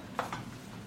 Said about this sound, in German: Ja, ich rühre übrigens gerade die Pfanne rum und verteile hier die Hälfte auf dem Herd,